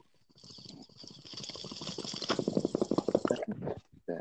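Steady gurgling of a water bong as a bowl is smoked, rapid bubbles that grow louder and busier midway, then cut off abruptly near the end with no talking.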